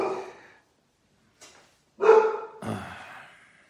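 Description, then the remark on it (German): A dog barks several times in an uneven sequence: one bark, a faint short yip, then two louder barks in quick succession. No one speaks. “Der Hund bellt eigentlich nie, nie.”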